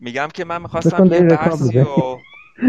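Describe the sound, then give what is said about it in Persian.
A pet parakeet (tooti) gives a thin, high, kitten-like mewing call, faint and brief, mostly beneath a man talking and then briefly clearer in a quieter gap near the end. “این صدای بچه گربه کیه داره میاد آره آقا بچه گربه نیست ما یه توتی داریم این میگه به منم توجه کنین”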